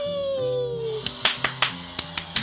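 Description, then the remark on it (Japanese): A sustained, slightly falling hum-like tone gives way to about seven sharp hand claps in a quick, slightly uneven rhythm, each crisp and fairly loud. “ごめんね、ちょっとね、はい、隣で寝てたんだけどね、はい、ちょっとなんかこの拍手うるさいよって言われちゃいました。”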